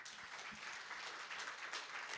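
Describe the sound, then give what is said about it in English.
A steady round of applause, dense overlapping claps forming a continuous bright, crackling wash with small swells, sustained at an even level throughout and with no voices standing out. “Go on, give him a round of applause.”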